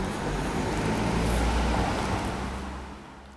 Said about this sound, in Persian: دارم تو خیابون گرابن که دیشبم اینجا بودیم راه میرم انگار نه انگار این همون خیابونه به قدری ساکت و سوت و کوره که انگار هیچ کس اینجا زندگی نمیکنه فقط گهگداری صدای ماشینی موتوری میاد و این سکوت رو میشکنه